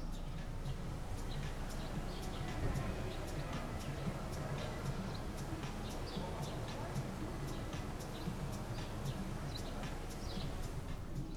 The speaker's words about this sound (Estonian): praegu siin akna peal võib kuulda linnulaulu, linnamüha, idaraadiot ja mängivaid lapsi